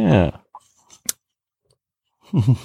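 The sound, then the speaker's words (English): Crisp crunching of a Samoa cookie being chewed after a sip of bourbon, a few soft clicks and one sharp bite, framed by brief murmured vocal sounds at the start and end. “Nothing like chewing on the radio.”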